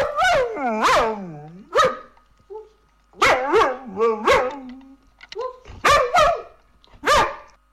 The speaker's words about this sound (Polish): i teraz posłuchajcie tego odgłosu psiego. Pies, pierwszy odgłos.